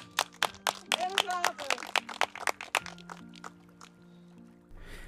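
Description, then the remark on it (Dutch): A small group applauds with loose, uneven claps for about three seconds, mixed with some voices, then the clapping thins out and dies away into a quiet background hum. “Applaus voor jezelf!”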